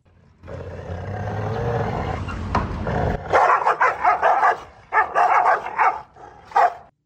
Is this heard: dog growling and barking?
yes